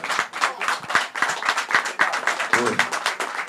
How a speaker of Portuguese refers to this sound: É, primeiro, é, desculpe a minha profissão, eu quero aplaudir o texto que o Mauro Betting escreveu. Que coisa espetacular!